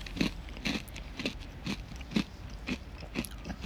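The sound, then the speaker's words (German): Crisp crunching of Funny-Frisch cheese jalapeño potato chips being chewed, about eight sharp bites in a steady rhythm roughly every half second, with no talking. “Doch, da hat man auch nicht was zu knuspern.”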